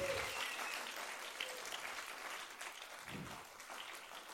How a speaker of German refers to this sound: Hallo, gebt mir doch einen großen Applaus ans Theaterteam. Hey, mega cool.